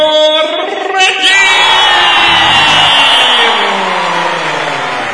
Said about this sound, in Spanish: Muchas gracias, muchas gracias, gracias. Gracias por sus aplausos, gente bonita y estúpida.